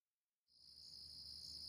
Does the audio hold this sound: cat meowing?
no